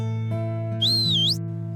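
A person gives one short, bright whistle that dips and rises in pitch for about half a second, heard clearly over a steady low background hum.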